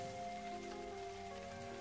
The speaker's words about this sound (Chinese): 窗外正下着淅淅沥沥的小雨，在这样的雨声里